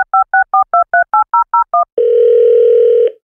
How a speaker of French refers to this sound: J'en trouve un sur le boulevard des Sources, le Centennial Memorial Gardens. Je téléphone